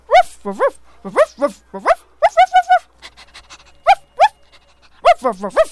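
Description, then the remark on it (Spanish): A small dog lets out a quick series of high, yelping barks and whiny yips, fairly loud, with a stretch of soft, rapid panting in the middle before more yips. “Un día llegó un perrito a su entrevista laboral.”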